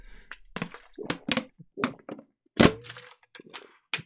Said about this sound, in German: Jetzt wäre fast die Flasche runtergeflogen.